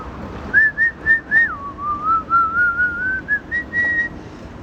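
A person whistles a pop song melody, a string of clear, bright tonal notes in quick succession that dip lower midway and climb back up, with no talking over it.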